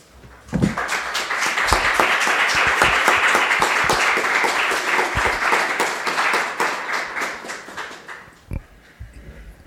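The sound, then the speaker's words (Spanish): An assembly audience breaks into applause after a speaker finishes, a dense burst of many hands clapping that starts abruptly, holds steady for several seconds, then thins out and fades near the end. “Pensaba que estabais haciendo memoria y no hay que aplaudir en una asamblea.”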